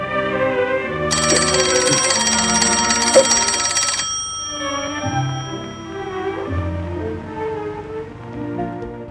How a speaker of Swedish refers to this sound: Det är lustigt förresten, hur länge det än har gått sedan man senast hade en telefon med en sån där mekanisk ringklocka så letar man ändå instinktivt efter en telefonlur att lyfta när man hör det där ljudet.